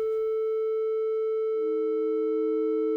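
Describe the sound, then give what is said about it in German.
A steady, pure synthesizer sine tone hums continuously and loud, with a second, lower tone fading in halfway through and sustaining alongside it. No voices. “Das sind genau 440 Hertz.”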